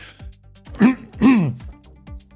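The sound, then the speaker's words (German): A person clears their throat twice in quick succession: two short, rough, voiced bursts, with a few soft clicks and breaths around them and no talking. “ja, räuspern wir uns mal, machen wir noch ein bisschen Party.”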